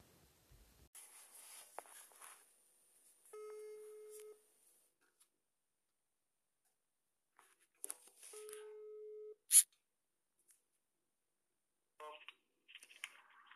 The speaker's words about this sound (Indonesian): Sekarang Nova akan coba telepon dulu, semoga bisa langsung connect ya.